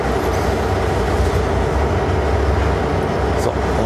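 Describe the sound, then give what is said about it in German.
The third engine motor of a locomotive starts up, rumbling loudly and steadily, a dense low drone with a rough mechanical texture that holds even throughout, with no voices. “Das ist Motor 3 und ein seltenes Phänomen, die Lok macht die Motoren wirklich in der Reihenfolge an.”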